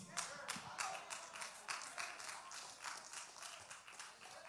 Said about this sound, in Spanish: Gracias por ese aplauso artrítico que tienen dos o tres.